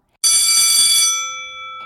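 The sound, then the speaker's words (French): A distant school bell gives one bright metallic strike, its shimmering overtones ringing on and slowly fading over about a second and a half, with no voices. “La cloche de l'école retentit au loin”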